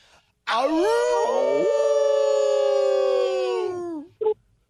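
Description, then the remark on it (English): A person imitates a wolf howl: one long, loud, sustained wail that rises sharply, holds steady for about three seconds, then slides down and fades, followed by a brief vocal blip. “Wow, man, my respectful back brothers, let me return that howl”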